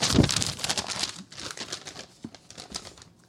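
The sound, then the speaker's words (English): Paper being crumpled, a dense run of crackly, crinkling rustles that starts loud and continues in irregular bursts for a few seconds, with no voices. “The crumple of the paper is my favorite part.”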